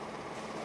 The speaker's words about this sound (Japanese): 木製の壁の向こうから印刷機の音が聞こえていた